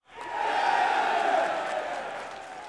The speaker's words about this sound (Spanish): Pero bueno, la verdad es que todas estas tiendas que venden a granel y, venden bien y, y hacen muy bien su trabajo, les vamos a dar un aplauso